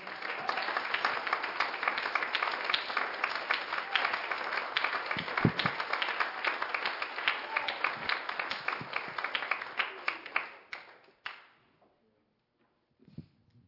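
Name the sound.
audience clapping hands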